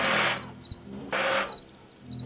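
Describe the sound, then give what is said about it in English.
Crickets chirp in short, high-pitched pulses that repeat in quick bursts, with a couple of louder rushes of hissing noise breaking in and a low hum underneath. “Like, male crickets are like battling with one another to see who gets to chirp the loudest.”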